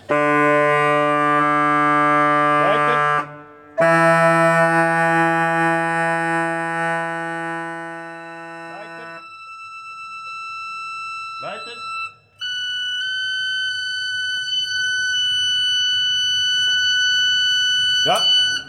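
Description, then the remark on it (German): Sustained organ pipe tones ring out one after another while the organ is being tuned, each held steadily for several seconds before stepping up to a higher pitch, loud with only brief breaks between notes. “Jetzt hört man, dass die Pfeife stimmt, indem ich den Schlitz geöffnet habe.”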